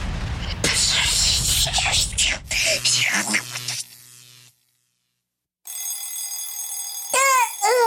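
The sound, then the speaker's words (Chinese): An alarm clock rings with a bright, sustained metallic jangle after a short silence. A busy burst of clattering sound comes before it, and quick rising chirps close the ringing. “闹钟好吵哦！”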